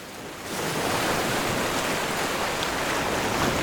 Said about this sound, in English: I pulled the ring off of my finger and tossed it over the cliff and into the raging waters below.